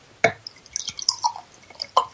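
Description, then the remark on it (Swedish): Soda is poured into a glass in an office: a sharp splash, then scattered bubbly pops and fizzy trickles, ending with another clear splash. No one speaks. “Ska bara hälla upp här så alla hör.”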